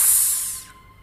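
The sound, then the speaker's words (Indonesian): A voice imitates the fizz of a used soda bottle being opened: one bright hiss that starts strong and trails away within about half a second, leaving quiet. “Pas aku buka botolnya, itu bunyi kayak botol yang ada sodanya gitu. Kayak bunyi ces”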